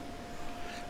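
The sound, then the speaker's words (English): A steady, droning 14,000 BTU air conditioner hum with a constant whoosh of airflow and a faint whine, running evenly in the background with no speech. “That stupid air conditioner is listed as having 14,000 BTUs.”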